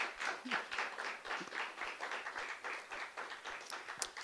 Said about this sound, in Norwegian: Tusen takk. Men det er lov å klappe.